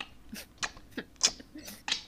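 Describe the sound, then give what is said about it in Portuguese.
A voice imitates chewing with a string of wet, smacking mouth clicks and crunchy bursts, about six of them at an uneven pace, fairly quiet overall with a couple of sharper pops. “Ele tá fazendo aquele barulho de mastigação, assim.”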